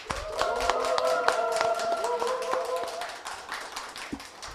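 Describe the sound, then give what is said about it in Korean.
A burst of audience applause opening the Kookmin TV current-affairs talk show Mammais, many hands clapping, fairly loud, alongside a few sustained tones, before thinning out and fading toward the end. “국민TV 시사 토크쇼 맘마이스 여러분의 힘찬 박수와 함께 시작하겠습니다.”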